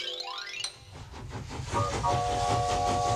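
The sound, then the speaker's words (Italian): A voice imitates a steam train while pretending a sponge is a little toy train, with a rising whistle and then rhythmic chuffing hisses that grow louder and steadier, fairly loud, with a sustained whistle tone on top. “Eh, però le spugne non hanno le ruote faccio un trenino, va bene?”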